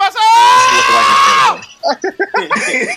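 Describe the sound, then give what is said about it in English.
A played clip of white men yelling: a loud, drawn-out yell of male voices rings out for about a second and a half, then breaks into short choppy vocal bursts like excited laughter or shouting. “play the uh, the yell, bro.”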